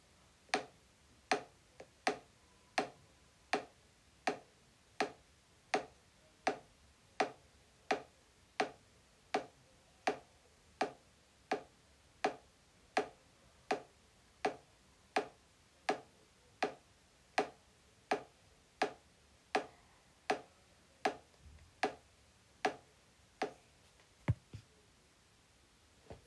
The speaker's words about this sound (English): Okay, that was sound of a little plastic doll beating against a plastic table.